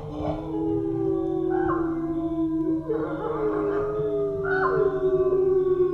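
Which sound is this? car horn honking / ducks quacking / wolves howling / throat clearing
wolves howling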